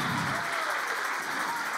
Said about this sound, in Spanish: Dale un aplauso fuerte al Señor en esta hora.